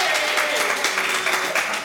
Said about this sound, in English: So I like the fact. I, first of all, real quick, I, I like the fact that um, the right side of the room to my right is clapping, the left side looking at me like, "Nigga, I don't give a fuck. Get to the point."